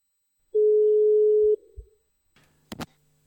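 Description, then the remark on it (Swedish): A single steady telephone ringback tone sounds for about a second, loud and clear, then stops; a few soft clicks follow and a sharp crackle as the line picks up, on a call to a member of the Turbojugend fan club in Kiruna. No one speaks. “Så jag ringde upp en turbojugend-person.”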